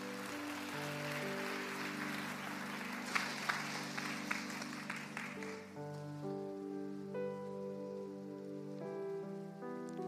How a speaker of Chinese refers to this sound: 下面我们要邀请三位弟兄姊妹啊，要对他们的父亲啊宣读感念文跟纪念文，好不好？我们热烈的掌声来欢迎这三位弟兄姊妹。